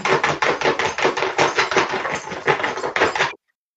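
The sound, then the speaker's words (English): A dog wearing a cone scratches an itch, its collar rapidly knocking against a wooden floor in a quick, steady clatter of taps, fairly loud for a few seconds before stopping abruptly. “Someone had an itch, and their collar is on the wood floor.”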